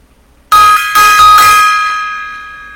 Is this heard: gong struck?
yes